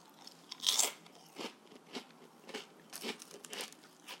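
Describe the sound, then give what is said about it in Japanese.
Crisp crunching as something is bitten and chewed, starting with a loud bite and continuing in a steady series of about ten smaller crunches, with no talking. “まあちょっと最後はね細かいっていうのもあって咀嚼音っぽくなかったですけどまあいっか”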